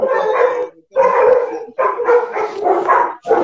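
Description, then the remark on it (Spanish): Several dogs bark and howl in long, overlapping bursts, loud and continuous with only brief pauses between outbursts. “Unos perros también, Sí, acá tenemos.”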